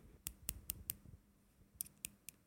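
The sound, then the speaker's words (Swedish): A gold ring with diamonds taps against a hard surface: four quick, evenly spaced clicks, a short pause, then three more. The sharp ticks are fairly quiet, with no voices. “Det är inte plast. Det, är det inte plast. plast. som plast. Det är en guldring med diamanter på.”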